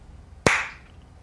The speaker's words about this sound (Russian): Я на самом деле так это хлопнул, что еще локтем ударил, и я в директ мониторинг прямо слушал, там вот такое вот было.